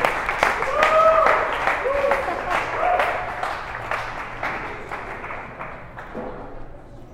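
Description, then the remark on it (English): An audience applauds for a group of girls in a dense, steady burst of clapping, with a few high cheers and whoops rising over it before the clapping gradually thins and fades toward the end. “Hey, guys, let's give it up for these girls, real quick.”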